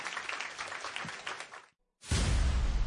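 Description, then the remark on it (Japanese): Steady, dense audience applause sees off three guests as they leave; it fills the first part, cuts to a brief silence, then a louder, fuller wash of sound with a heavy low end bursts back in. “えー、ここでですね、お三方退場となりますので、えー、皆さん大きな拍手でお見送りいただきたいと思います。”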